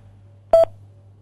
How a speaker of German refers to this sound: Sie müssen nur nach dem Signalton ganz einfach auf Ihrem Tastentelefon die Taste 3 drücken. Ja, nur die 3. Die 3. Bitte drücken Sie jetzt gleich nach dem Signalton die 3.